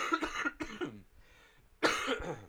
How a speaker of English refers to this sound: excuse my coughing. I am still sick. Trying to get through this.